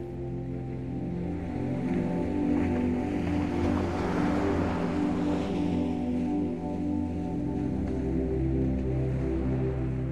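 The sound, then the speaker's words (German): Soft, warm sea waves wash over bare feet at the water's edge with a gentle swell that builds and fades near the middle, over a steady low droning hum. No one speaks. “Du gehst zum Wasser und lässt die leichten Wellen weich über deine nackten Füße schwappen.”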